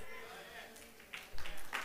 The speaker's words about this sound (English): Oh, let's just clap our hands unto the Lord this morning.